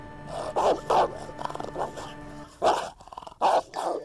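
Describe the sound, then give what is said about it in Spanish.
The neighbour's dog barks in several loud, sharp bursts, with low rumbling growls between the barks. “Mira, están escondidos en la casa del perro del vecino.”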